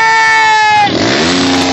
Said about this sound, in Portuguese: Ah, muito barulho pra orelha essa moto aí